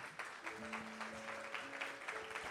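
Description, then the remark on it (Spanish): An audience claps steadily in a dense wash of many hands, giving applause to God, while a sustained organ or keyboard chord holds underneath the applause throughout. “Alguien le da un aplauso a ese Dios poderoso.”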